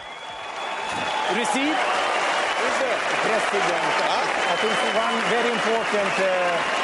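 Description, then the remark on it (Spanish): A large tennis stadium crowd at the Mutua Madrid Open final breaks into sustained, loud applause as Ayuso enters the court. The applause swells up within the first second and holds steady, with scattered voices and shouts mixed into the clapping. “Bueno, la señora Ayuso que entra a la cancha como una verdadera estrella del rock.”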